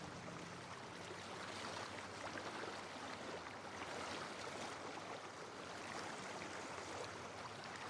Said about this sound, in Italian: Mentre ci avviciniamo alle grotte, l'acqua si calma.